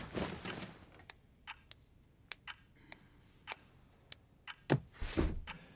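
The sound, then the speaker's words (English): A clock ticks steadily, sharply and loudly, its crisp clicks evenly spaced, with a brief rustle or shuffling noise near the end. “Why is this clock so fucking loud?”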